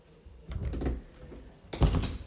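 household object, door being closed

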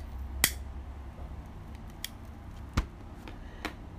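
household object, ballpoint pen being handled

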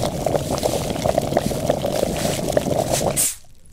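household object, water boiling

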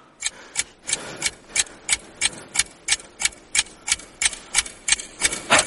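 household object, clock ticking

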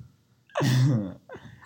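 human body sound, a sneeze

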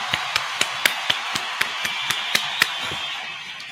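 crowd, round of applause

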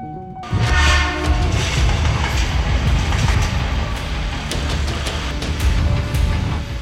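ambience, train passing

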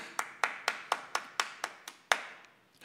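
crowd, hand clapping

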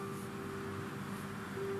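vehicle, street car traffic noise

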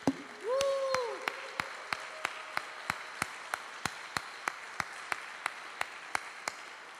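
crowd, audience applause

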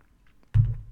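food or drink, sipping coffee

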